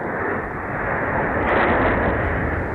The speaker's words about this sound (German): Sekunden später explodiert in der Ferne etwas am Militärflughafen Engels russische Langstreckenbomber getroffen im russischen Hinterland.